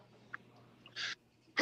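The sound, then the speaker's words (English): A single sharp sneeze bursts out, short and hissy, with a softer intake of breath before it. Another abrupt burst starts right at the end, over a quiet background hum. “Bless you.”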